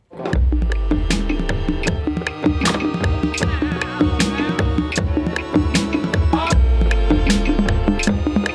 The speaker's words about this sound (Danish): Vi kommer tilbage senere, men nu skal vi have en jingle.